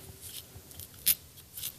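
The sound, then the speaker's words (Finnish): Quiet scratchy strokes of a stripping knife, ordered from America, combing through a wiry dog coat: several short rasping passes, one sharper and louder in the middle, with no talking. “Mulla on tämmöisiä, mä joskus Amerikasta tilannut näitä veitsiä ja käydään tälleen läpi.”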